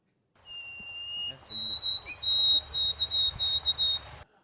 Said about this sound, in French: Connaissez-vous le, le, bruant, le, bruant à gorge blanche? Ben, bien sûr, c'est mon chien préféré. OK, ben on va aller entendre l'extrait, voir si t'as raison.